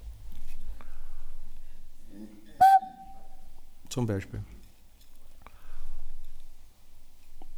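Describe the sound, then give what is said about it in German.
A nose flute, blown with the nose rather than the mouth and having no keys, sounds one short, steady whistling tone at a mid-high pitch, held for about half a second after a breathy attack, with soft speech before and after. “Also man bläst nicht mit dem Mund ein, sondern mit der Nase.”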